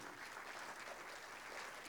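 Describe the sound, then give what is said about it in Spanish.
An audience applauds the Lord during a church service in a steady, dense wash of clapping that holds at an even level for the full two seconds, with no voices standing out above it. “¿No le doy un aplauso al Señor usted por eso?”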